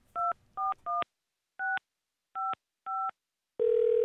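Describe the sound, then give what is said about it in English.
Six touch-tone beeps as a phone number in Louisville, Kentucky is dialed, in quick bursts with short pauses between, followed by a steady, loud phone line tone. No one speaks. “And so I just uh, heard back from her saying it was okay to give her a call, and so let's do that.”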